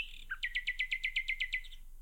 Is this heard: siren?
no